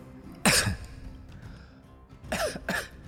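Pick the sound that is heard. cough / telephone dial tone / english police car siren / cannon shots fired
cough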